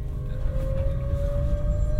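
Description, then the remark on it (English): A train heading north, with Newcastle as the next station, rumbling steadily along the track: a heavy low drone with a thin, slowly rising mechanical whine above it, continuous and fairly loud, with no voices. “That alien concept travel and moving, the rumble of the track, the whisper of anticipation.”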